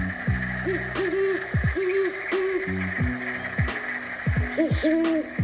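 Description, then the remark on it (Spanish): Owls hoot over and over, several low calls overlapping and sliding downward in a loose, continuous rhythm, set against a steady buzzing background like night insects. “Así tenían como mensajeros al tecolote y a la lechuza.”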